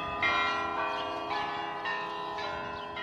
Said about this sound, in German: gottgefällige Architektur und in den Lüften ein heiliges Bimmelbammel, das der endlose Himmel schier entzweibrechen möchte.